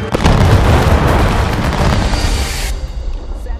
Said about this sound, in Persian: 750 سرباز شلیک کردند دود که محو شد باب ناپدید شده بود